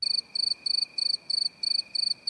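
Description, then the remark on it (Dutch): A cricket chirping sound effect: crickets chirp in a steady, rapid rhythm, a high shrill trill repeating in short bursts about three times a second, clear with no voices present. “Mag hier even dan krekels zo meteen?”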